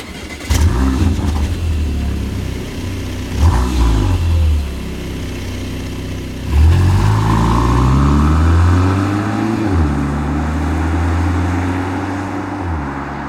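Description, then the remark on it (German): A Porsche Macan's engine revs loudly in a few sharp blips, then surges into a longer climb in pitch before settling to a steady, throaty drone. No one speaks. “Es ist der Makan.”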